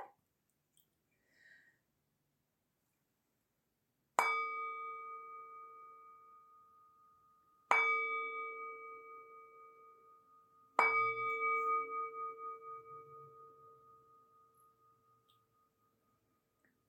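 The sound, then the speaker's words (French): A meditation gong is struck three times at a slow, even pace to mark the start of a meditation session, each clear metallic tone ringing out and fading slowly, fairly loud. “Le gong indiquera le début et la fin de la séance.”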